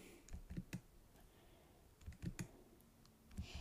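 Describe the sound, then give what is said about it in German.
Short bursts of computer keyboard typing, a few quick clustered key clicks at a time separated by brief pauses, fairly quiet, with no one speaking. “Ich glaube, ich kopiere jetzt mal das Minus B, da muss ich nicht immer so komisch tippen.”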